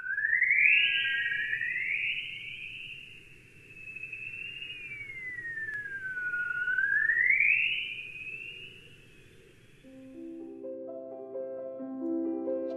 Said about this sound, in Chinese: 接下来，这架飞机检测到的声音是来自太阳的高能粒子，它们被地球的磁场捕获，从而产生了这些类似于外星鸟鸣叫的声音。